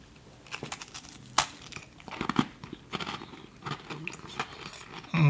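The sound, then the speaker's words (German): A crisp crunch as someone bites into a spiced speculoos cookie topped with a dab of plum butter, followed by several seconds of irregular crunchy chewing with dry, crackly bursts and a faint breathy sound, no talking. “Und jetzt wird es ganz irre auf diesem Gewürzspekulatius.”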